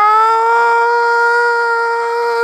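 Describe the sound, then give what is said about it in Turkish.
A loud, steady alarm siren, played as the 'Watt alarm', holds one unwavering tone with strong harmonics for the whole stretch, sounding alone with no voices, then cuts off abruptly at the end. “Bir saniye ben hemen şeyi çalıştırayım ya. Watt alarmını çalıştırayım.”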